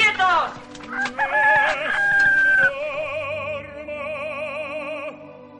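A hen clucks and calls loudly, starting with quick sharp notes that stretch into a long, wavering cry lasting several seconds, with no one talking.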